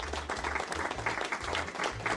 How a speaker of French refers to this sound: J'envoie les applaudissements.